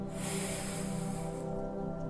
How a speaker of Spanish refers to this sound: Ve siendo consciente de tu respiración y ve sintiendo cómo poco a poco nos vamos calmando. Inhalo.